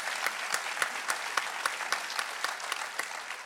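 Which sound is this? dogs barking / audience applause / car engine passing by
audience applause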